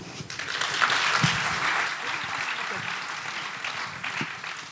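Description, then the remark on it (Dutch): A crowd applauds steadily, a dense wash of many hands clapping at a fairly even level throughout, with a few low murmurs of voices underneath, applauding a group of people and author Raoul de Jong. “Dames en heren, een applaus voor deze mensen en voor Raoul de Jong.”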